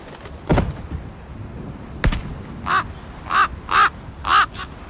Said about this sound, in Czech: No tak koukám, že nejsme jediný vrány. No to ne, tady je spoustu a oni hledají, kam jim nasype Bren zrní.